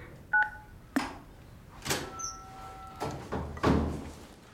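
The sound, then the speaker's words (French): A door that won't open is tried several times, giving a handful of dull clunks and rattles spread over a few seconds, mixed with short electronic beeps and a sustained tone, with no talking. “the door won't open.”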